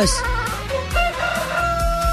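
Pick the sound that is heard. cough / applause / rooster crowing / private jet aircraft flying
rooster crowing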